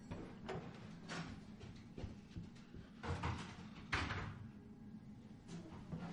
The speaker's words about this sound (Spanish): Abre una puerta y busca dentro de la habitación.